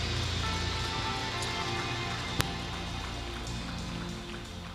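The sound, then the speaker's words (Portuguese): A church audience applauds the Lord during a service in a steady, dense wash of clapping that holds an even loudness throughout, with one brief sharp crack partway through and no voices standing out. “Você em casa, aplauda ao Senhor.”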